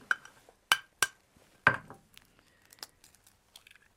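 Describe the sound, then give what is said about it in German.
A small metal pan clanks sharply a few times as it is handled, then a brief crunchy crack as an egg is broken into it, followed by faint scattered clicks and clinks. “Ich gebe dir mal hier eine kleine Pfanne.”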